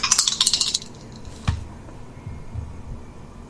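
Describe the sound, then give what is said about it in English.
Dice rattle and clatter across a hard table for under a second, a quick burst of bright clicks, followed by a single soft knock and quiet background noise; the dice are rolled for an awareness roll in a tabletop game and come up five. “I'm going to melt my dice down.”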